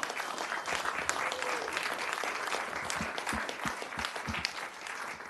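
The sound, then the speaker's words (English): An audience breaks into sustained, steady applause for honored guests, dense overlapping claps at a moderate level for several seconds with no voices standing out. “Let's hear it for these folks. They're all heroes.”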